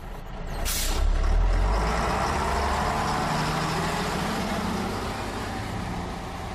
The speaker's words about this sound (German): Heute fahren wir mit dem Linienbus nach Minden in die City.